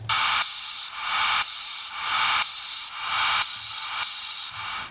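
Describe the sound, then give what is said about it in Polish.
Loud, continuous radio hiss from an RS-41 radiosonde between data frames, while its transmitter is switched off, swelling and dipping in a steady rhythm about once per second, hard to tell apart from FM noise, with no voices. “No, słychać też, że ramki są nadawane co jakiś czas, nadajnik jest wyłączany i leci szumek trudno odróżnialny od szumu FM.”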